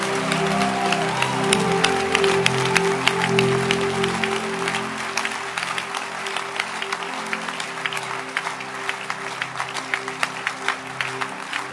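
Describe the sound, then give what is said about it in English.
A large crowd, asked for a loud hand clap, claps loudly and continuously for about twelve seconds, a dense, steady wash of applause with sustained musical chords humming underneath. “I want to hear a loud hand clap.”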